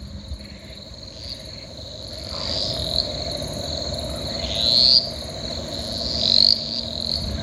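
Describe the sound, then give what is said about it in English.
A cane toad gives a long, steady low trill, partly buried beneath a loud, continuous chorus of crickets and other insects buzzing high and bright throughout. “That is uh, cane toad calling, we believe.”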